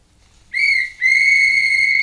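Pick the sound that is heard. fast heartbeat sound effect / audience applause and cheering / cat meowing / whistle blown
whistle blown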